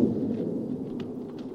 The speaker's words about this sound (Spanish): Con trueno y todo.